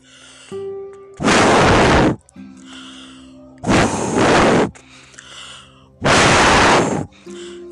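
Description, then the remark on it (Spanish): Three loud, forceful blowing gusts, each about a second long. A person puffs hard to imitate a wolf blowing at a house to knock it down, with soft tonal music playing between the blasts. “Y el lobo sopló muy fuerte”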